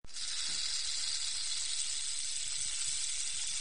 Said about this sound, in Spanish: La serpiente parecía un arcoíris juguetón cuando sonaba su cola de maracas.